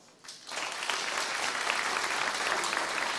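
crowd, audience clapping hands

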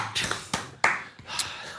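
crowd, hand clapping applause

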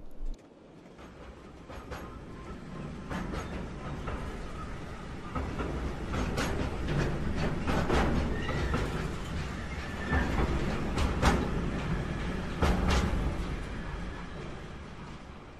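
vehicle, train running on rails

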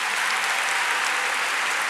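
crowd, audience clapping

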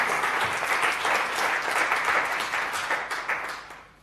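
crowd, audience round of applause

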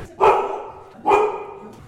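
animal, dog barking

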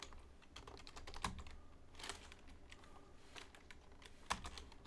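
household object, loud mechanical keyboard typing

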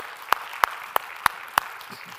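crowd, audience hand clapping

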